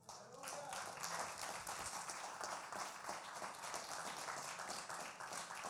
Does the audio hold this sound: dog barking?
no